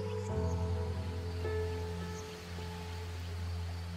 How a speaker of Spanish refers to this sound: A lo lejos empiezas a escuchar el sonido del agua, de un río. Este camino te lleva directamente a un tramo de este río. Sientes cada vez más de cerca el agua correr.